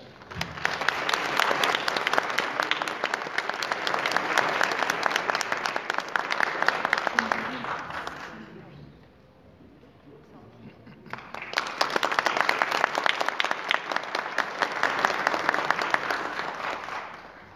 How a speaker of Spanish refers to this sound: recibimos entonces al maestro Lucio Vita Gutiérrez Mendoza con fuertes aplausos.